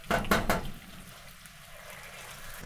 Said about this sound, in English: Now I agitated the water a bit, because then that's going to get some of the scales off.